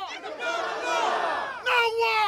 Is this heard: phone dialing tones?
no